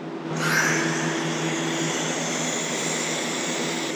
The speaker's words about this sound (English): And oh, here, the hydrogen inflation safety system. Yeah, HISS for short. HISS. so we reset the software and we put it in standby that turns on two exhaust fans up in the corners. Oh, that's going to exhaust any excess gas.